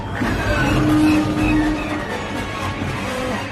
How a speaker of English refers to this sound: and they're heading towards some star destroyers, and they try to go into hyper hyperdrive, and they can't, and it makes that weird, you know, like sound.